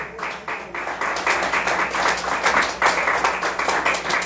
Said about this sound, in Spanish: Bueno, ofrenda de palmas al Señor.